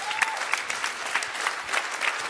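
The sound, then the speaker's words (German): Steady audience applause, a dense wash of many hands clapping at a moderate level, with faint crowd murmur underneath and no clear speech. “Und ich wette mit dir, hier klatschen jetzt viele, aber hier sind ein paar drunter, die sagen, ich würde mal eine Chance geben.”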